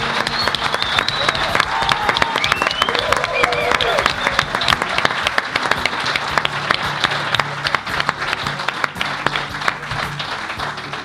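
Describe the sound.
A large audience applauds steadily for about eleven seconds, a dense, loud wash of many hands clapping at once with faint crowd voices mixed in, holding strong before easing slightly near the end.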